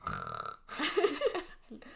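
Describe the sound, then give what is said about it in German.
A voice imitates snoring with rough, guttural rasps: a steady throaty drone, a brief pause, then a louder gravelly burst that trails off, lasting about two seconds. “Ihr hört so ein Schnarchen, so.”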